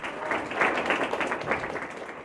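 theatre audience applause

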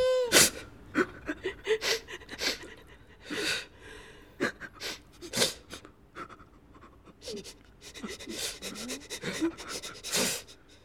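crying

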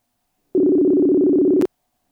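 telephone ringing tone

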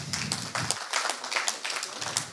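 round of applause

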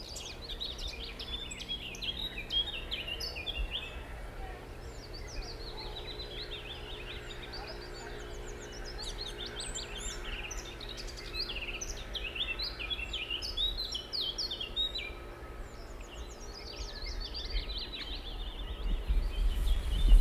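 birdsong

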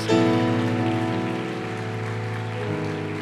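audience applauding in welcome

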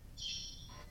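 mobile phone ringing

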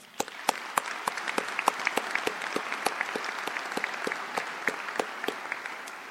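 audience applause

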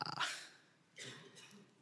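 cough

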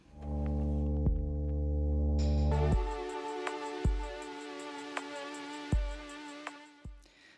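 song played on air

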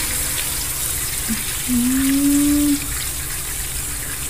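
water running

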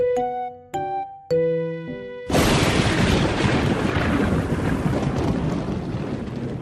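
rainstorm with thunder

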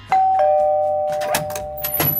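doorbell ringing

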